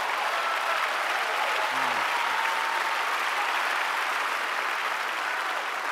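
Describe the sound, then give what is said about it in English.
An audience claps together in a dense, steady burst of applause that holds at an even, fairly loud level for the whole six seconds without fading out. “Clap if you can relate to that.”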